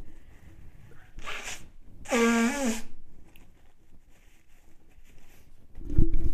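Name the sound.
blowing nose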